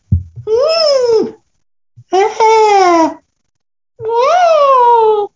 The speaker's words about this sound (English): You mean you didn't dub that? No, I didn't dub it. We've been using the same scream for years.